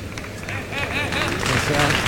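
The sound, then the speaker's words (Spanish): A bullring crowd gives an ovation to José Antonio Carretero after his cape work with the bull, steady applause and cheering in a dense, continuous wash of noise, with shouting voices rising through it and swelling slightly toward the end. “Y se lleva la ovación del público.”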